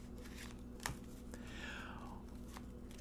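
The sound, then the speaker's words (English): Tarot cards being shuffled: soft papery riffles and rustles with a sharp snap near the start, quiet over a steady low background hum. “As I shuffle, let's think about passion think about romance.”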